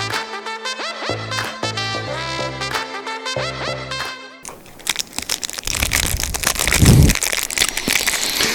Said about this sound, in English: That sound is of satisfaction. Uh, it's a Snickers. You know why I'm eating a Snickers?